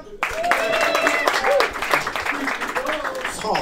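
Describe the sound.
An audience breaks into applause, a dense steady patter of many hands clapping that starts abruptly and carries on throughout, with whoops and cheering voices mixed in.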